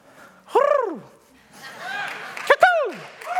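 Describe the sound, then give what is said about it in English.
A man's voice imitates bird calls, producing several swooping, arched whistles and squawks in quick succession, loud, with a sharp percussive pop between them. “Man, I just had to make some bird noises.”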